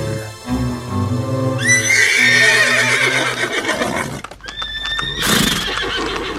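A horse whinnies in a loud, shrill, wavering call, then neighs again, while hooves clip-clop steadily underneath.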